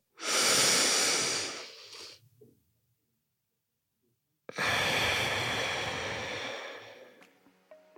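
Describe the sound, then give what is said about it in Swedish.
Two long, slow, deliberate breaths, a soft airy inhale through the nose followed after a pause by a longer, rushing exhale through the mouth, with no talking. “Det är liksom in genom näsan, ut genom munnen.”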